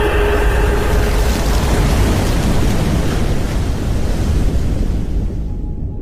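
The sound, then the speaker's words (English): A loud, rushing torrent of water roars steadily, a dense surging wash that holds for several seconds before its hiss thins slightly at the very end. “The pain was washed away with a great flood.”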